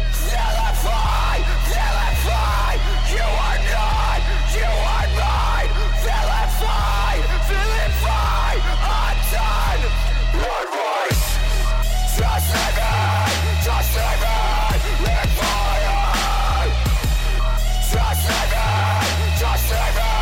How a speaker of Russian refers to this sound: Только что вы услышали, как звучит сам настоящий трэп-метал. И это просто прекрасно.